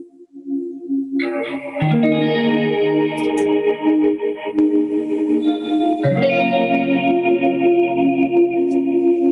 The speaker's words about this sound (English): Oh yeah, so that's dry. And then there's so you can high pass that, that reverb.